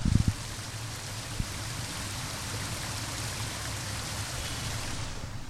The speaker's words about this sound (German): diesen, diesen Bach zu beobachten, diesen kleinen Wasserfall und mir die Frage zu stellen, wie würde das als Foto aussehen